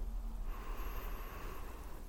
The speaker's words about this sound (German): Und dann atmen wir ganz tief gemeinsam ein.